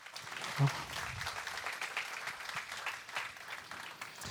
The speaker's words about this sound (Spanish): Dale un fuerte aplauso al Señor si estás de acuerdo conmigo.